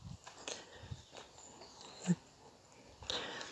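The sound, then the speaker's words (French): A dog, the guardian of the place, sniffs in short, breathy bursts as it comes up to a calm person, with faint whimpering noises between them in an otherwise quiet setting. “Comme j'étais calme, le chien noisette, qui est un petit peu le gardien du lieu, est venu me voir.”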